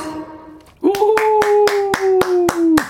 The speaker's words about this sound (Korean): 이야, 지금 삼촌 뭐 이모들이 물개 박수 막 치고 있어요.